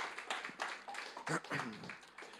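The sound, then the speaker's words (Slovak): An audience applauds for the Lord, with dense, continuous clapping for a couple of seconds and a few voices calling out over it. “Tak dajme potlesk ešte pánovi.”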